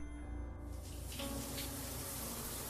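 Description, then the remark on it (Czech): A steady, continuous rush of tap water as a woman fills a bathtub for her bath, heard faintly and muffled from behind a door, with a low background hum and no voices. “Slyšel jsem, jak si napouští vodu.”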